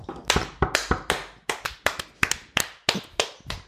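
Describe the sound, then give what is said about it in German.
Hand clapping: a quick run of a dozen or more sharp, crisp claps in a steady but slightly uneven rhythm, fairly loud, with no talking. “Von mir gibt es da einen Applaus.”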